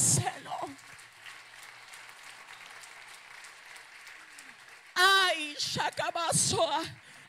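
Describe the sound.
A crowd applauds steadily for about five seconds, a dense, even patter of clapping at moderate volume, before a voice begins speaking loudly as the clapping fades beneath it.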